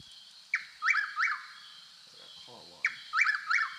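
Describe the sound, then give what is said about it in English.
A bird calls outside in two bursts of sharp, rising chirps, each burst three or four quick notes, fairly clear, with a short faint murmur in the gap between them. “Now that's the fucking bird.”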